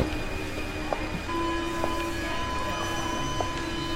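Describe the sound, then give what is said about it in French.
A metro train hums in a Paris metro station a little before midnight in June, at around 35 degrees, with a steady electric whine and mechanical drone, a few faint clicks and clanks punctuating the continuous rumble, with no voices. “Perdue dans ses pensées, elle attend son métro.”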